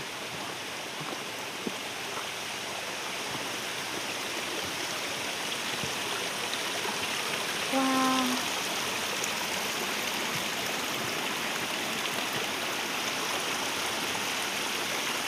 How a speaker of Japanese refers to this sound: 川の音が聞こえてきました